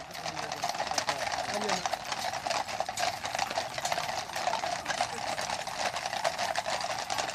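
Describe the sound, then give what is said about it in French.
Rapid, continuous clatter of many horses' hooves on pavement in a coronation procession from Westminster Abbey to Buckingham Palace: a carriage drawn by six dappled white horses between regiments of mounted soldiers, a dense, steady, loud rhythmic clip-clop with a faint crowd murmur underneath. “Alors entre deux régiments de soldats montés, euh, je vois émerger devant moi un carrosse tiré par six chevaux blancs et pommelés.”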